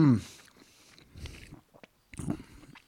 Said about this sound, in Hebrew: אתם פשוט תשמעו אותי לועס ואוכל ברגעים האלה.